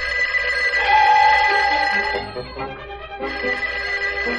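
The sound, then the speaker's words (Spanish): A telephone rings late at night in a closed shop, with a bright, sustained electronic trill that pauses briefly and then resumes, fairly loud, with no voices. “De pronto el teléfono sonó.”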